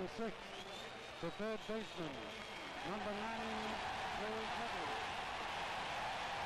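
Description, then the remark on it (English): Long, steady applause from a large crowd giving a standing ovation for Nettles in Game Four, a dense wash of clapping that swells and holds to the end, with a man's voice talking over it in the first half. “Oh, yeah, long applause, standing ovation.”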